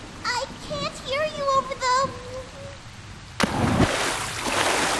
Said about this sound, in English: Penny fell into the water. Panicked to help a friend, she forgot wet wings eventually don't fly. Penny fell into the water.